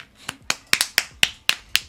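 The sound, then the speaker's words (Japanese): A short run of quick, sharp claps, about eight crisp hits in a brisk, steady rhythm, one pair landing almost together, with no voices. “うん、オールでした拍手して”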